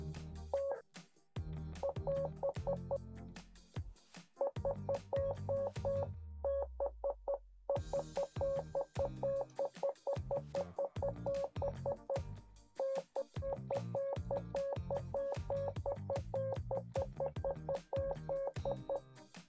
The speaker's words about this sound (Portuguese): Hoje eu vou fazer uma pergunta misteriosa para Yanxi em código Morse